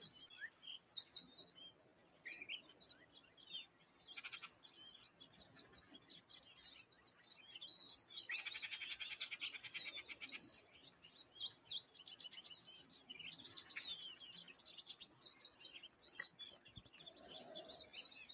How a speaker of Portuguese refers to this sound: Temos os pequenos passarinhos da primavera cantando e brincando.